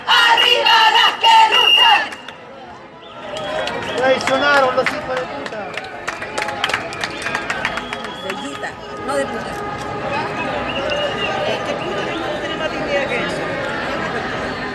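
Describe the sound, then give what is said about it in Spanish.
A large crowd of feminist women chants and shouts together at a protest march for free abortion at the Centro Gabriela Mistral (GAM), loud at first, then continuing as a dense, energetic mass of voices with scattered cries and clapping. “Escuchamos el grito de las mujeres feministas acá emplazadas hacia el GAM, el Centro Gabriela Mistral, con esta gran bandera, ¿no es cierto?, este gran pañolín sobre el aborto libre”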